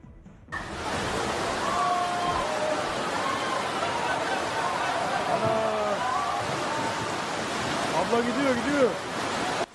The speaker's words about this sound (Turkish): Hava durumu, yağışlar ve sağanak.